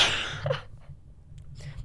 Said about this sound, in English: Also, I'm about to sneeze.